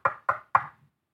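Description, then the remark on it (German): Three firm knocks on a wooden door in an even, quick rhythm, fairly loud, each with a short resonant decay, followed by silence. “Kam dieser Moment, als an seine Türe geklopft wurde.”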